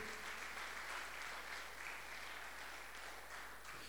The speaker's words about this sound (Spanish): Ahora denle un aplauso a Jesucristo. Aleluya. Aleluya.